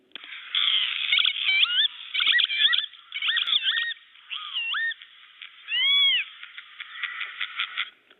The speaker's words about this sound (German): Und er hat eben diese ganz markante Stimme, dieses Kiwi, so hat er auch seinen Namen bekommen, das Kibitz. Ich kann es nicht ganz so gut nachmachen, darum habe ich hier mal ein Geräusch vom Kibitz mitgebracht.